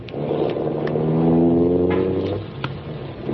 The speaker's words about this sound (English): He was waiting outside the building for me in his car. We took off and headed back across town again.